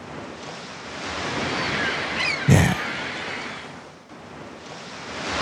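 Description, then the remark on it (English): Ocean waves roar steadily against the shore in a continuous, full wash of surf, with a faint breath of wind. Midway, a person briefly speaks a single word over the noise. “You can hear the, fl- the, the roar of the waves and smell the smoke of somebody with a barbecue pit.”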